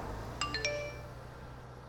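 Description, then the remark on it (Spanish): A short text message alert on a cell phone during an early-morning ride to school: two or three quick, bright electronic chime notes that ring out briefly and fade, clear against a low steady background hum with no one speaking. “Un viernes como cualquier otro, en uno de esos viajes temprano en la mañana, Carmen recibe un mensaje de texto muy peculiar.”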